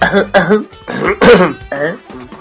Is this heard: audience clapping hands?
no